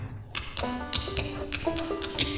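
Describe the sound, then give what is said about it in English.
A steady clip-clop of tapped hoofbeats from a horse-drawn carriage coming by on a street, evenly spaced, with faint tonal ringing under the taps and no voices. “Sound effects for you guys.”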